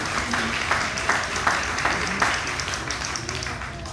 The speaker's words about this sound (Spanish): El aplauso.